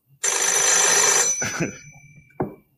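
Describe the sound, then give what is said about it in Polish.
A telephone bell rings in one loud, dense burst lasting about a second, followed by a fading tonal tail and a brief clunk, like a handset being lifted. “Kiedy w parę dni później odebrał ich ze szpitala, zadzwonił znowu.”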